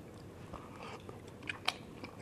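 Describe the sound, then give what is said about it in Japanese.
Quiet, soft chewing of Yamagata imoni, beef and taro simmered in a soy-sauce-based broth, a steady wet mastication broken by a few sharper little clicks and smacks, with no talking. “これやっぱ山形芋煮食べないとね芋煮からいこうかな実はちゃんと食べるの初めてかもしれないえっ、ー、と多分醤油ベースのお出汁とかスープに牛肉にこれは里芋だねじゃあいただきます”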